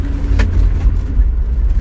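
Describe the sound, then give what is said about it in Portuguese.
A deep, steady engine rumble from a 1960s American car driving, heard from inside with a continuous low throb and a brief rattle near the start, no voices. “é um carro americano dos anos 60”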